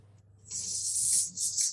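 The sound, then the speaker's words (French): A person hisses a steady, compressed, held "sss" sound as a breathing exercise, with a lot of pressure but very little airflow, for over a second, bright and breathy like a small snake, swelling slightly and briefly dipping before continuing, with a faint low hum beneath. “Donc ce sera un S assez comprimé, comme ça, comme un petit serpent,”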